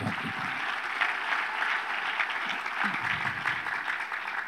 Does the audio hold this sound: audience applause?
yes